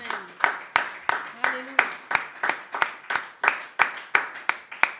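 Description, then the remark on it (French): An audience claps together in a steady, fairly quick rhythm, giving applause to the Lord Jesus; the sharp loud claps are evenly spaced, with faint voices calling out underneath. “Mais je voudrais aussi une chose, que le plus grand des applaudissements, mon frère, ma soeur, aille à notre Seigneur, le roi des rois et le Seigneur des seigneurs, au nom puissant de Jésus.”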